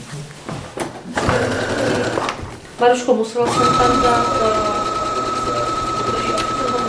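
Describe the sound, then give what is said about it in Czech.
A sewing machine runs steadily, its motor whirring with a rapid needle clatter, starting and stopping briefly before a long continuous stitch run, while a woman talks over it. “až z toho vznikne nějaký finální návrh, který buď u větších projektů jde do dílen, kde už to odezdáme, oni to ušijou podle látek, co přineseme, anebo to šijeme sami.”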